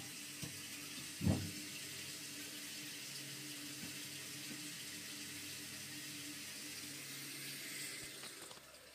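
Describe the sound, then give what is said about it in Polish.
Tap water runs steadily into a sink at home while hands are washed thoroughly beneath it, front, between the fingers, back, nails and thumbs, then rinsed, with a brief knock or splash near the start and faint rubbing and splashing throughout. No voices. “Tak, myję ręce dokładnie najpierw z przodu, potem między palcami, tył, paznokcie i kciuki.”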